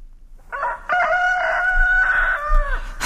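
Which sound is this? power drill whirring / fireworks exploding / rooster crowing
rooster crowing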